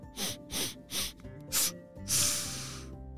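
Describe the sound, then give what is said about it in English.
A voice mimics two animals raising their noses and sniffing the air: four quick, sharp sniffs in an uneven rhythm, then one longer drawn-in snuffle, fairly loud, with no talking. “They both raised their noses up to the air and started to sniff.”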